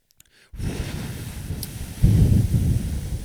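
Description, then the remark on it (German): Loud, low rumbling wind buffets a microphone after a brief quiet start, roaring continuously and growing even stronger partway through, with no voices. “Ähm, es ist gerade sehr windig!”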